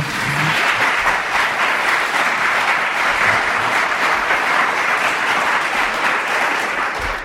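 Steady, dense applause from a well-filled audience in a town hall's ceremonial hall, many hands clapping at once at a constant loud level for several seconds without any speech.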